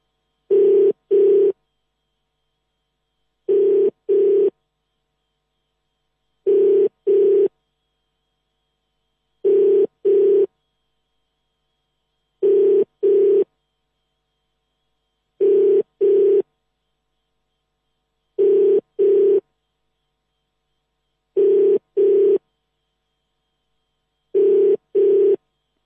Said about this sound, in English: And so we wait for his phone to ring.